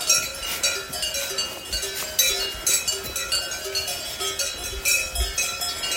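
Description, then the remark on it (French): Many cowbells clank and jingle irregularly from a herd of all-white cows right beside the listener, overlapping tones ringing continuously with no one talking. “Et là, à côté de moi, il y a un troupeau de vaches avec leurs clochettes, celles que j'entends depuis tout à l'heure.”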